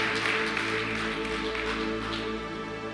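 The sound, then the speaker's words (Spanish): Steady applause from an audience giving an applause to God, a dense crackle of many clapping hands that stays at an even loudness for the whole stretch, with sustained tones of music humming underneath. “Vamos a dar un aplauso a Dios por la vida de todos.”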